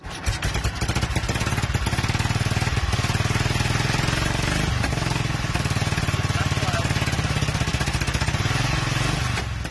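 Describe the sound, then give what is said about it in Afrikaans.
A 1936 Royal Enfield motorcycle engine roars to life, quickly settling into a loud, steady, rapid chugging beat that keeps running without pause. No one speaks. “Ek wil eintlik gou vir jou laat hoor hoe klink hierdie motorfiets as hy opstaart.”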